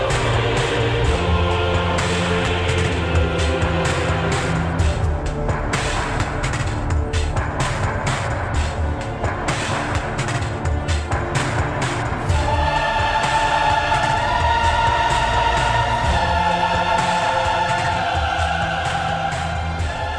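A driving, dense orchestral-electronic film score from the 1990s film Plunkett & Macleane, directed by Ridley Scott's son, plays steadily at full volume, with pulsing percussion and sustained strings that swell into brighter held tones in the second half; no voices.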